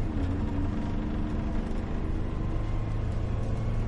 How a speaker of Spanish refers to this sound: Interior de un autobús. Va al completo. Entre los pasajeros ambiente tenso y gestos de intranquilidad.